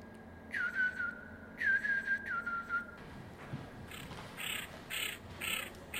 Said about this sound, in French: Le chevalier gambette est un oiseau de mer qui mange tous les crustacés.